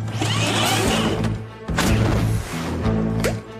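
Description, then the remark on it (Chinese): Chase's cartoon tennis ball cannon in PAW Patrol fires at balloons in several sharp, whooshing bursts, roughly three shots spaced a second or so apart, over a steady low mechanical hum with no talking. “阿奇，快点用你的网球炮打破几个气球！哇，网球炮启动！”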